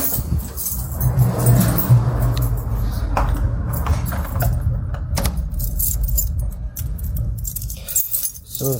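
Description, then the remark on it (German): A ring holding many keys jingles and clinks repeatedly as someone searches for the right key, a busy metallic rattling over a steady low rumble like a car or engine in the background. “muss ich nur noch den richtigen Schlüssel finden. Ich habe jetzt so viel Schlüssel dran.”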